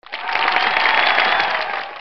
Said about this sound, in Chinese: 现在鼓掌